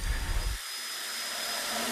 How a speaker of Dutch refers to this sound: Op de achtergrond hoor je de boormachines die een aantal dorpelingen hebben meegenomen. De initiatiefnemers hebben namelijk ronde metalen plaatjes laten maken met de namen erop van alle dorpelingen.